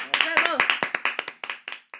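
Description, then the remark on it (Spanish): Brief applause from a small group, a quick run of sharp claps that gradually thins out and softens over about two seconds, with a voice calling out over the first claps. “Y después volvemos y ahora un aplauso. Un aplauso.”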